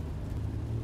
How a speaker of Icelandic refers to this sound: Þú sest inn og setur þar um stund á meðan regndróparnir berja á bílrúðuna. Síðan setur í dræf og byrjar að keira á stað.